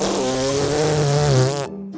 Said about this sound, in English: The loudest fart was by a man